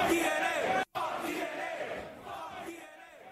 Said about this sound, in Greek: Όσο ακούγονται, παιδιά, δεν μπορώ να το σοπάσω. Δεν μπορώ να σοπάσω το λαό. Δεν μπορώ να σοπάσω το λαό, δεν μπορώ να σοπάσω τον κόσμο. Δεν μπορώ να το κάνω αυτό το πράγμα. Γιατί ο κόσμο είναι απ' έξω, ε, φωνάζει, πετάει ρουκέτε